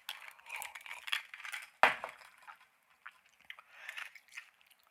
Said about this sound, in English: I like chewing ice. Do you chew ice?